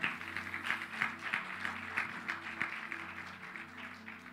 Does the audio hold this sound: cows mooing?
no